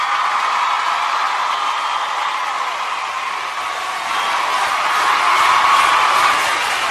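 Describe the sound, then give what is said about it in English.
A crowd applauds and cheers in a steady, dense wash of clapping that holds for several seconds, swelling slightly near the end where a high whistle or whoop rises above it; a 'mom applause' played by Channel Mom as a tribute to mothers. “That applause is for you, even if you think it shouldn't be.”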